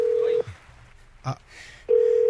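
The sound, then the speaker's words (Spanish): A telephone call being dialed: a steady, loud mid-pitched line tone cuts off, a quiet pause with one short click follows, then the tone returns. “Ok, vamos a marcarle, por favor”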